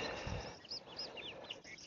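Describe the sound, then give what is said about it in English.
Bobolinks perched on posts sing in a grassland, their bubbly, tinkling phrases overlapping against a soft wind-like background, with a low rumble early on. “bobolinks that are singing stand they're uh, perched on on posts and singing i assume their mating calls”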